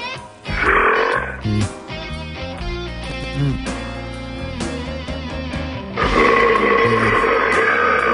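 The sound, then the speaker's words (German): Croaking, drawn-out burps erupt loudly over a dense, steady musical background, one near the start and a longer, rougher one in the final couple of seconds. “Den Rülpser verpasst.”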